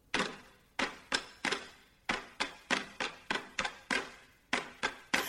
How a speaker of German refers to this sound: Nun ist es aber an der Zeit, die Verdauung des Tio anzuregen. Mit Stöcken und Regenschirmen klopfen die Kinder im Rhythmus auf ihn.